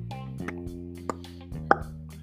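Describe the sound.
A voice imitates a cork being pulled out with a few sharp mouth pops, the loudest near the end, over a steady low hum, fairly quiet.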